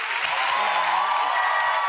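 An audience applauds steadily, a dense wash of clapping that stays loud and even for the full two seconds, with a faint voice briefly audible beneath it.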